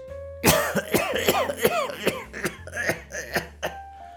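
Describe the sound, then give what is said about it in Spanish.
A loud coughing fit from a sick man in bed: about a dozen harsh, rasping coughs in a rapid, uneven series, with strained breaths between them and a faint steady hum underneath. No one speaks. “le dio un ataque de tos.”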